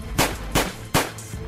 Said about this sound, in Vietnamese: Henry Reeves vừa từ nhà thơ bước ra leo lên chiếc ô tô đậu sát lề Hai Ngọc khi này cưỡi xe đạp chậm chạp như một người thong dong ngắm cảnh rồi áp sát chiếc ô tô của Henry Reeves đúng vào lúc y vừa khởi động máy. Ba phát súng vang lên.